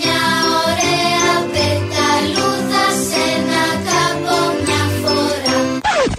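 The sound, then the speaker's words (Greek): The bright, bouncy Greek children's song 'Mia oraia petalouda' plays as a short jingle, with chiming melodic notes over a steady rhythmic backing, loud and continuous, ending abruptly near the close. “Να σου πω την έμπνευση για το τραγουδάκι που παίζει τώρα το μια ωραία πεταλούδα παρέα με τον κυβερνητικό εκπρόσωπο.”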